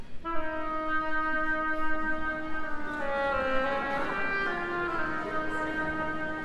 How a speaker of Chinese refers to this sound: 角色乐器配置是这样的：弦乐四重奏代表彼得，双簧管代表鸭子胖胖，